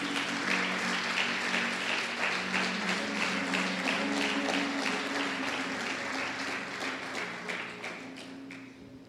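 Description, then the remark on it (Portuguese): A crowd applauds the Lord steadily for several seconds during a religious sermon, dense clapping with a low sustained musical hum underneath; the applause thins slightly toward the end. “Quem pode aplaudir ao Senhor por isso?”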